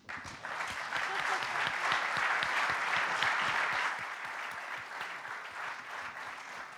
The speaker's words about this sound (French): J'invite nos, intervenants à monter sur scène sous vos applaudissements.